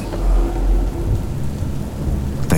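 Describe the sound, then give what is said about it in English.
A thunderstorm with deep, heavy rumbles of thunder rolling beneath a steady wash of rain, ending in a sharp crackling burst. No voices are present. “Within the hour, the storm had passed”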